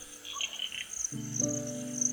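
Insects chirp at night in a steady, high-pitched, unbroken trill throughout, fairly soft, with a low humming tone joining about halfway through. No one speaks.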